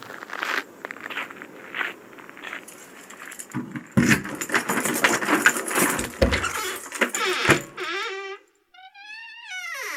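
keys jangling

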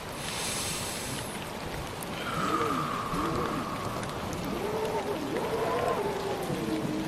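rain falling

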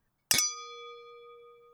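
glasses clinking

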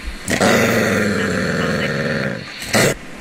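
dog growling

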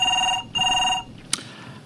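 telephone ringing

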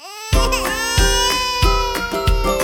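baby crying loudly

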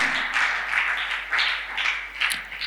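audience clapping hands

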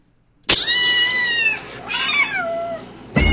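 cat meow sound effect

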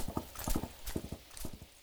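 horse hooves clip-clopping

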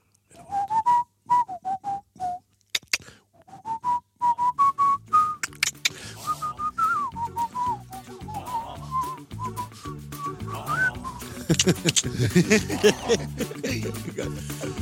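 person whistling a tune

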